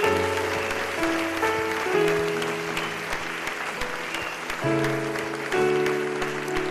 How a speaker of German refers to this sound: Hey, lass uns einen riesen Applaus für die Menschen geben, die gerade ihr Hand hochklappen. Hammer!